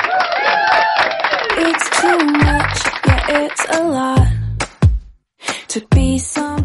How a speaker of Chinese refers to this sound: 那我们闲少叙，让我们用热烈的掌声欢迎今天我们的小姐姐闪亮她登场。